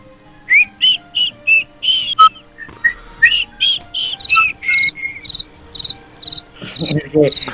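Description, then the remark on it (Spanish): A cricket sound effect: crickets chirp in a steady, rhythmic series of short, high-pitched trills, clear, with no voices, and a faint rustle near the end. “Es que, nos ha mandado callar el técnico y ahora no pone un grillo.”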